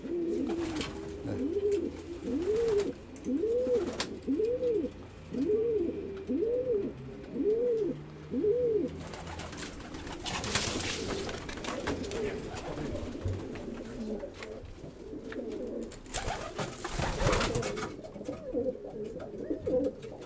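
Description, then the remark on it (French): Female pigeons in a loft coo, calling their males, in a steady series of rising-falling calls for several seconds, then the cooing continues more loosely amid rustling, flapping bursts and shuffling noises. “Les attendez recouler les femelles. Ils appellent leur, euh, les mâles.”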